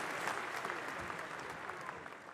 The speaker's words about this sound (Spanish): Un aplauso multitudinario estalló al instante.